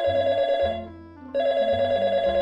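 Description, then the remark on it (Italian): A telephone rings twice, loud, its bright electronic tone breaking off briefly before starting again. It is an incoming call from a hospital. No voices are heard. “Il giorno dopo Arturo riceve una telefonata.”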